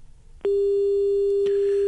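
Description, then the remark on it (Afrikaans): A steady, single-pitched telephone busy tone after a call drops begins abruptly after a soft hiss and holds unbroken and loud to the end, with a faint click partway through. “Hey, die lyn is toe nou nie lekker nie.”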